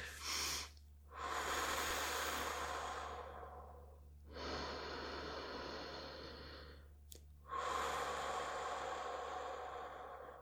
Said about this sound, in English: even this, my breathing, I don't do a good enough job of breathing in fully. Like there's there's something that's missing there.